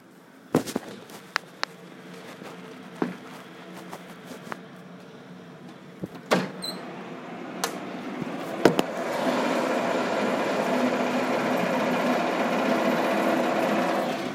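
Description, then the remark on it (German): Sharp metallic clanks and knocks from outside at irregular intervals, then a steady, swelling mechanical rumble and rattle as a heavy excavator with a crane at the front drives along the street, growing louder. “Oh mein Gott, da fährt jetzt gerade einfach mal ein Bagger über die Straße.”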